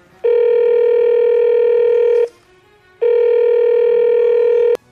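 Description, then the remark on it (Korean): A phone line ringback tone: two long, steady electronic rings of about two seconds each, separated by a brief pause, loud, with no voices and a small click at the end, as someone phones a delivery driver. “배달기사님께 전화드려봐야겠다.”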